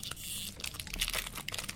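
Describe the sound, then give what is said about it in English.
A snack bar wrapper crinkles and tears in a dense rustle, followed by a string of irregular, crackly crunches as someone bites in. Fairly quiet, with no talking. “me just take a bite of something.”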